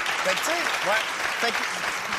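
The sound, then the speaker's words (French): A crowd claps steadily in a dense, continuous wash of applause, with scattered voices whooping and cheering over it throughout. The audience is applauding in answer to a question asking who in the room was not born in Montreal. “Je pense pas, parce que pour moi, Montréal, je pense qu'il y a beaucoup de non-montréalais à Montréal, par applaudissement, qui sont ceux ici qui ne sont pas nés à Montréal ça.”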